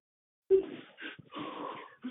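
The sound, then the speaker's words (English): A strained voice lets out labored groaning with wheezy, breathy edges, in a few uneven pushes that stop and start, with no words spoken, as a man travails in intercessory prayer. “So listen, let me let me help you guys understand that his sound is a travail,”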